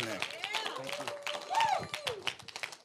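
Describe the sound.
An audience claps because they thought the speaker was done: a crowd claps steadily throughout, a dense patter of many hands, mixed with cheering voices and a rising shout near the middle.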